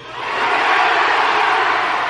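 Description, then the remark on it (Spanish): An audience shouting, on a count of three, the names of their diamonds (leaders) all at once, their overlapping voices swelling quickly into a loud, dense roar that holds steady for a couple of seconds. “queremos por favor reconocer a todos sus diamantes, así que a la cuenta de tres, por favor, usted grita el nombre de su diamante con cariño, ¿ok?”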